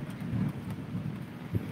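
Steady heavy rain hisses while low thunder rumbles, rolling in soft swells with a brief deeper thump near the end. No voices.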